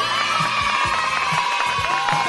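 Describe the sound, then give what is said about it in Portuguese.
A crowd of children shouts and cheers together in a loud, steady, high-pitched roar, many voices overlapping throughout with no pauses. “Vai, eu quero cadê criançada?”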